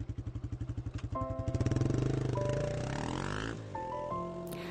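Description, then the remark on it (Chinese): An old, battered small motorcycle engine putters in a steady rapid pulse at first, then revs up into a rising, droning whine as it pulls away carrying a father and son toward school on a cold day, no voices present. “就这样，父子二人上了摩托车，朝着学校的方向驶去。”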